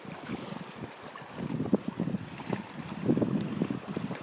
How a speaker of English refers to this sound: Wind's blowing so hard, it's shooting the water up halfway across my sitting rock here. So I'm sitting a little higher than normal.